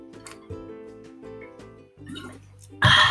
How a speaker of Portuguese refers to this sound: Pausa para água, que é importante.